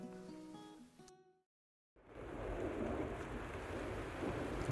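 A few plucked guitar notes ring out and stop, then after a short silence a steady, dense hiss of rain begins, with a low, continuous rumble of thunder underneath.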